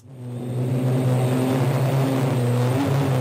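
Drone rotors buzz steadily, a dense droning hum with a few stacked tones that rises quickly and then holds loud and constant, with slight pitch wavering and no talking.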